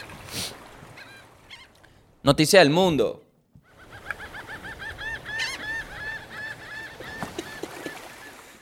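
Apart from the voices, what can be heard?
seagull calling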